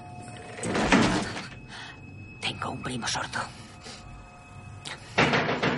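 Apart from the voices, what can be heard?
door being shut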